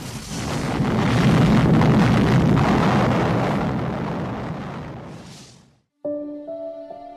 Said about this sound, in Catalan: Enola Gay va deixar anar la bomba des d'una altura de 9.450 metres i 43 segons més tard, quan el cap nuclear era a 600 metres d'Hiroshima, la van fer detonar.